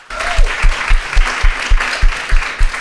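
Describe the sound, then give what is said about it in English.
An audience applauds the panelists at a running community event, steadily, a dense wash of many hands clapping with a few louder claps keeping a loose rhythm throughout. “Let's give it up for our panelists here tonight.”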